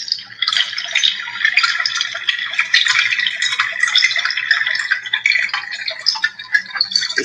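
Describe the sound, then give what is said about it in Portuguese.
A cipó d'água water-sound instrument is played, giving a steady, dense trickling and rushing like flowing water with fine rattling grains, continuous for several seconds with no voices. “Esse aqui eu gosto muito, que, que é o cipó d'água.”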